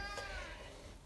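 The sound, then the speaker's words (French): A single drawn-out cat meow, clear, with a rising then falling harmonic whine lasting about a second against faint background noise. “C'est le chat qui est pas du tout d'accord avec toi.”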